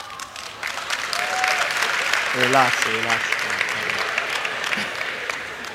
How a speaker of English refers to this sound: Before you clap too much. Because I know some of you will withdraw your clap when you hear the things I want to say.